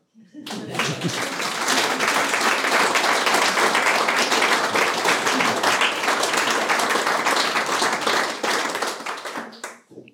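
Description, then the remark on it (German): A crowd bursts into sustained applause, dense overlapping handclaps holding steady and loud for several seconds before tapering off at the end. “Ja, die Ressourcen des Hauses verlangen einen Applaus zunächst mal.”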